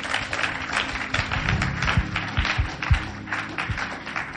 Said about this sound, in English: Clap their hands for God.